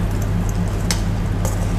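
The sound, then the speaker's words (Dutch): Meat, seasoned with salt and marinade mix and just turned over, sizzles in a frying pan, a steady hiss and crackle with a couple of sharper pops, over a low background hum and with no voices. “En nu laat ik hem even eh, weer bakken.”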